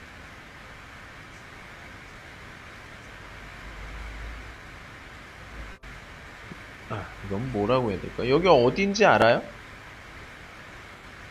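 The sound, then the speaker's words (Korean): Subway station ambience: a steady, dense rumbling hiss with a low swell partway through and a brief dip, then a person speaks briefly over the drone near the end. “다음은 우리가 지하철에서 많이 볼 수 있는 상황이죠.”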